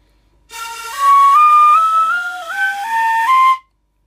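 An untuned ohayashi-style shinobue bamboo flute, used for festival music, plays a slow stepwise scale of several sustained, breathy notes climbing in pitch, loud and alone, with the uneven intervals typical of ohayashi festival music rather than a Western do-re-mi.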